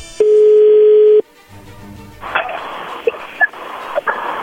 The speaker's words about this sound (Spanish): Muy bien, ya entró ahí la llamada, por favor no haga ruido.